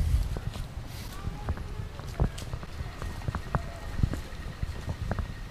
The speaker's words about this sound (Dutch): En nu gaan we zo'n beetje langs het hek lopen. Op zoek naar ratten.